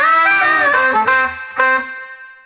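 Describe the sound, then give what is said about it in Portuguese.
Loud distorted electric guitar chords ring out with a chorus-like effect, several struck in quick succession before the last one sustains and slowly fades, with no voices. “Lembrando a todos que a trilha sonora desse podcast foi produzida por mim em parceria com o grande guitarrista ….”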